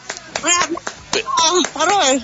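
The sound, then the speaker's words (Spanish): A few sharp hand claps, given as applause for a rock singer's birthday, land at a quick, steady pace while people keep talking over them, the voices louder than the clapping. “hoy Ah, hoy, ah, bueno, un aplauso.”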